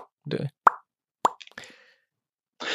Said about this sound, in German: Nur für das Plop-Geräusch. Geräusch. Alles, Für, alle, alles fürs Plop-Geräusch.